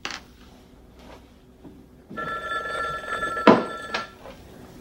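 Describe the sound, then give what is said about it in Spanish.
A black telephone on a small side table beside a red chair starts ringing partway through, a sustained metallic bell ring with a sharper, louder burst near the end, over a quiet background with no one talking. “Voy a pasarlo al teléfono que está en la mesita con la silla roja.”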